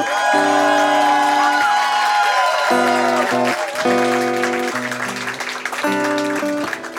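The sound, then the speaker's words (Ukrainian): A large audience claps and cheers with scattered whoops as a performer is introduced onto the stage, the dense applause running continuously under loud, sustained stage music chords for the full length. “Зустріньте її такими аплодисментами.”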